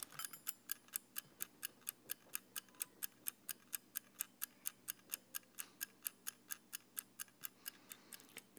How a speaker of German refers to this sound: Der Kurzzeitwecker.